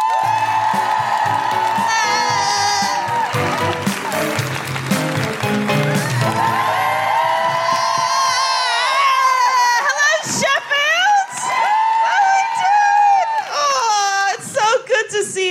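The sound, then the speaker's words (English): A live comedy show audience in Sheffield cheers, whoops and screams loudly and continuously to welcome comedian Sophie Duker. Shrill high-pitched cries rise over a dense roar of voices and some applause, and the excitement surges again toward the end. “Put your hands together and make incredible, welcoming Sheffield Guilty Feminist woohooing noises for the wonderful Sophie Duker.”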